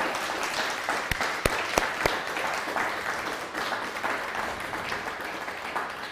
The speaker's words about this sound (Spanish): ¿Por qué no le damos un fuerte aplauso al Eterno, primeramente?